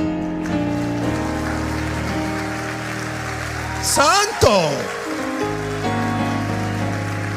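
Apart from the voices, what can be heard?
audience clapping applause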